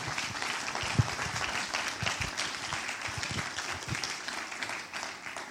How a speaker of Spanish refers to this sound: Si usted lo cree, den un aplauso fuerte al Señor, por favor.